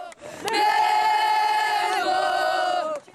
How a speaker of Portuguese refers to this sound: Os torcedores estão empolgados na porta do centro de treinamento, o Ninho do Urubu.